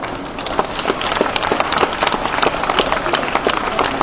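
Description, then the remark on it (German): Sustained audience applause, a dense wash of many hands clapping at a steady, fairly loud level with scattered sharper claps standing out throughout. “Kräftiger Applaus.”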